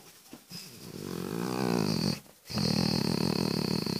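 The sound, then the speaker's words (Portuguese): A dog lying down beside its owner lets out low, drawn-out groaning grumbles while being petted, two long contented moans separated by a brief pause, with no talking. “É, tá ouvindo o barulho que ele faz? Porque estou acariciando ele.”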